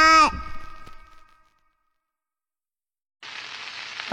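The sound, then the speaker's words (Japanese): After a short tonal sound and a pause, steady sizzling of karaage (Japanese fried chicken) frying in hot oil for a packed lunch starts up, a dense crackling hiss that sounds much like rain. “雨か。傘持って出かけるの嫌だな。あれ晴れてるな。今日のお弁当、唐揚げだからね。忘れないで持ってってよ。その音か。”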